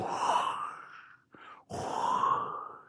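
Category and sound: vocal imitation, voice imitating ocean waves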